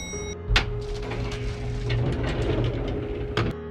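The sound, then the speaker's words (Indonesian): An elevator door slides open after its button is pressed, with a low mechanical rumble and steady hum, bracketed by a sharp clunk at the start and another knock near the end, with no voices. “Akhirnya, dia berdiri di depan pintu lift, dia tekan tombol lift, dan pintu lift pun terbuka.”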